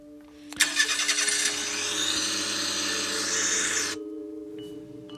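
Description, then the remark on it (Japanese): A car engine cranks and catches at about half a second, then idles with a steady, loud rumble and whine before cutting off abruptly near four seconds. No one speaks. “で、車に乗せられた後、”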